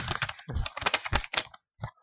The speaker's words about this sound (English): Oh, it's uh, mailbag, by the way. Yeah, yeah. So, sorry for our new listeners. Um, that that paper fluttering is, is just opening our, our mailbag